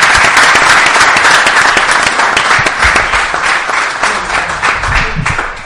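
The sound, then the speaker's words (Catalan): A live audience breaks into sustained applause for the hosting organisation, a dense wash of many hands clapping steadily, holding strong before easing slightly toward the end. “Un aplaudiment per ells també, sisplau. Aplausos.”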